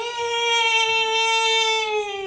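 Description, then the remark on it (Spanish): A voice imitates a cat crying like a child with one long, high, steady wail that sags slightly in pitch. It is loud and unbroken for about two seconds, with no other talk. “No, llora como niño. Estaba, estaba llorando.”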